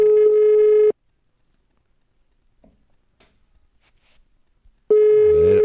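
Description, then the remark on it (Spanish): An outgoing phone call to a friend rings on the line: a steady electronic ringback tone sounds briefly, falls silent for about four seconds, then starts again, loud. “Vamos a ver si nos coge el teléfono a la primera.”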